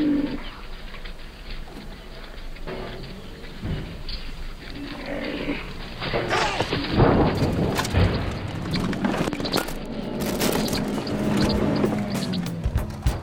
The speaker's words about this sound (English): And that was the sound of a white rhino charging a car in Kruger National Park in South Africa.